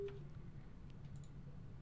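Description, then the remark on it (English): Faint phone-line tones after a dropped call: a brief beep at the start, then a steady low electronic hum with soft static crackle. No one speaks. “Mike dropped. Okay, let's go to Dan.”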